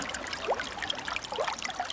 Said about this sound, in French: Eau courante. Sans courir, je suis le cours. J'apprends la chanson de l'eau. Jamais la même.